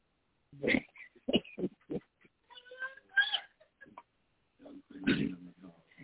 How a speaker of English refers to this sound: right, that, was your dog, huh? We on the radio, so we gonna say that was your dog until we get off the radio.